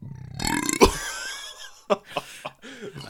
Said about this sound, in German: Boah, jetzt könnte ich wieder atmen. Ja, freigestoßen.